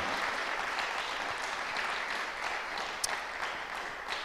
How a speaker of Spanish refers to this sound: Y aquí esta iglesia pequeña, pero con un corazón grande y una visión de Dios, les envía un fuerte aplauso y que un Dios les bendiga a todos ustedes.